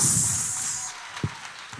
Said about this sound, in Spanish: Ese aplauso es para Dios.